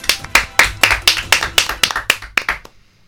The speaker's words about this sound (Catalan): Aplaudiments, sisplau.